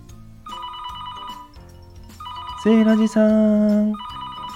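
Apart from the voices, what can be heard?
telephone ringing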